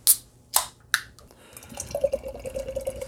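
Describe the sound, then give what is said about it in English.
Three sharp clicks, like a can tab being worked and snapped open, then a steady gurgling pour of beer filling a glass, fairly quiet with no talking. “And I'm going to crack open a beer.”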